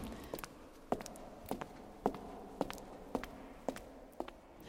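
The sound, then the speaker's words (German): Steady footsteps, about two per second, echo through a large reverberant church interior, each step sharp and followed by a lingering tail; no one speaks, and a low hum of room tone sits underneath. “Vielleicht hört man es auch ein bisschen. Der Hall ist auf einmal da.”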